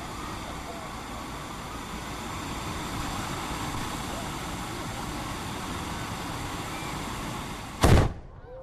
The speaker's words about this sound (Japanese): さて豊橋市内にあります豊朝神社にやってきました今こちらでは手筒花火が披露されています